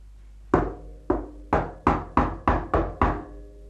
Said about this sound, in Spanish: En eso se oyó un golpecito a la puerta. El alcalde pensó, han de ser esas malditas ratas, pero... Alguien tocaba a la puerta.